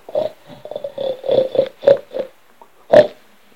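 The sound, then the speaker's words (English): Several people make rapid pig-like oinks and snorts as a vote that the big bad wolf is guilty, in a quick, uneven series of short grunts, ending with one louder oink after a brief pause. The pig sounds are human vocal imitations. “Not oinking.”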